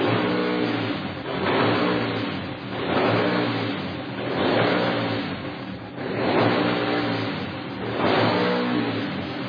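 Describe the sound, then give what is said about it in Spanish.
A loud motorcycle engine revs repeatedly, the roar swelling and easing in waves about every two seconds, with no talking over it. “Gracias a Dios ya se fue la moto, ¿verdad?”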